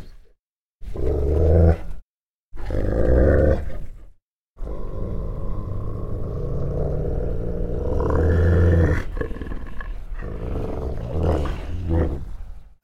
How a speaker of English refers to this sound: Regarding the roars, the growls, yeah, it's very intimidating.